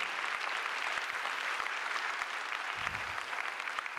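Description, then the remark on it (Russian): An audience bursts into sustained applause to praise God, a dense, even wash of many hands clapping at once with steady loudness throughout, no voices standing out. “давайте Его прославлять, давайте Его сейчас прославим нашими аплодисментами.”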